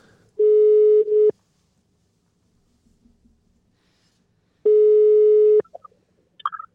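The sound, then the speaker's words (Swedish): Two long, steady electronic ringback tones while phoning a man, each about a second, separated by a few seconds of near silence, as the call rings out on the line. “Ska vi ringa upp honom och höra var han är någonstans?”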